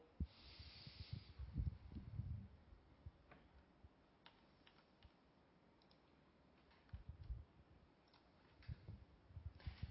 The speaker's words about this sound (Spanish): Para eso les pido que se pongan cómodos, la espalda recta, ojalá sentados, Y vamos a tomar una respiración profunda para relajar el cuerpo.